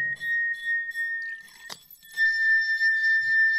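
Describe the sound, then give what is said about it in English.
A sustained, pure ringing tone from a water-tuned musical glass being tuned by adding or removing water, humming steadily at one pitch, briefly interrupted by a soft knock, then resuming at a slightly different pitch with shimmering overtones. Adding water lowers the note. “And that is just like giving tension or loosening the string of a violin, just raise or lower the water level.”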